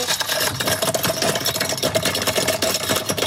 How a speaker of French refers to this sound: Un petit peu de glace pilée. Ah, la glace ah, pilée. ça, ça fait un petit peu de bruit. Ah oui, allez-y. Hein. Ah ben ça, c'est le bruit que tous les Lorrains adorent. Le bruit de l'apéro. Sortez les glaçons.